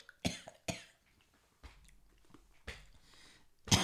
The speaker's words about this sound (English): I wasn't prepared with water. I was prepared with a new microphone so I could hear me choke.